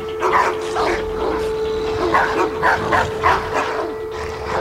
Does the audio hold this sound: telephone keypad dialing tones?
no